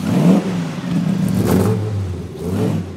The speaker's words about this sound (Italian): Sotto il cofano, una forte impronta sportiva, un motore da 6 cilindri in linea, poco meno di 2 litri